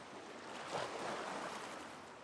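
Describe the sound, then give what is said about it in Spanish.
Soft, steady wash of ocean surf rolling onto a beach, a broad hiss that swells slightly midway and then eases, heard alone without any voices. “el sonido suave de las olas acariciando tus oídos”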